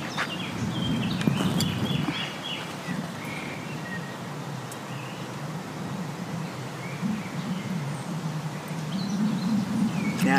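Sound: wind blowing into microphone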